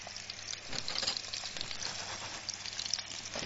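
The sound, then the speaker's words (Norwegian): Fish and bacon frying in a pan, a steady hiss of sizzling fat with scattered crackles and pops throughout, fairly loud and with no voices over it. “Å, oh, så er lyden igjen, da.”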